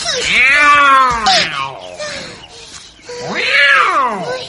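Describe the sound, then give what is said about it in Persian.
A cat lets out two loud, drawn-out meows as it chases a mouse in the dark, separated by a short gap filled with quieter rustling sounds; the second cry rises and falls like a wail. “مشکوچولو از ترس هرچی رو جمع کرده بود به زمین ریخت و پا گذاشت به فرار گربه هم به دنبالش رفت”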